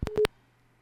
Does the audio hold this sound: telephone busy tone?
yes